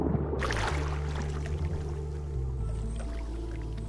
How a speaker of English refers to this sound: We're in the Roy Guerrero Colorado River Park, and below us is the Colorado River.